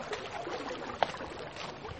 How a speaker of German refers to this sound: Ihr hört vielleicht den Fluss plätschern.